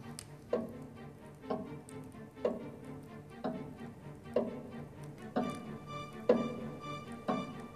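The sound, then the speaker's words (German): A large black pendulum clock ticks steadily about once a second, eight crisp, even ticks over a faint low hum, with no voices. “Jeder der Anwesenden konnte das Ticken im Sekundentakt hören und mitzählen.”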